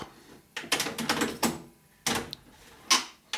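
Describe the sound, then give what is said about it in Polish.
A cassette deck's transport mechanism engaging and stopping as its start and stop buttons are pressed: a series of sharp mechanical clacks and clunks in irregular bursts, fairly loud, with brief quiet gaps and no voices. “Start. Stop.”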